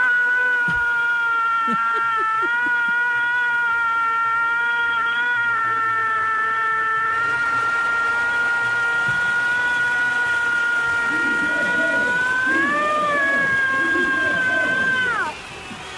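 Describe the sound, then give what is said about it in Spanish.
A long, loud Mexican grito held on one high, steady pitch for about fifteen seconds, swelling into a final upward flourish before breaking off, with faint murmuring underneath; given by a young boy in a contest for the longest grito. “Oye, bien largo el grito.”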